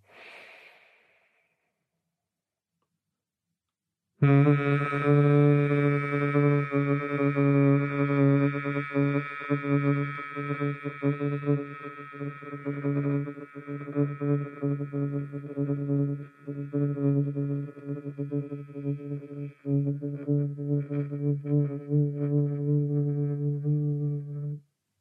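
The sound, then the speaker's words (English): A brief inhaled breath, a pause, then a long steady low hum from people humming together, held for about twenty seconds, rich and droning, with no talking, fading out at the end. “So we're going to hum three times.”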